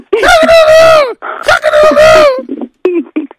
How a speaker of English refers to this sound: the first one to notice that we're playing a chicken sound effect